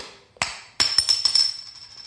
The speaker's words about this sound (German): Mach dir doch erstmal ein Bier auf. Na, das Kannst du das nochmal ganz nah am Mikrofon machen?